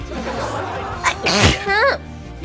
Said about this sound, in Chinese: 我今天从起来到现在一个喷嚏都没有打，一开直播就打喷嚏，我怀疑我的麦克风上面有毒。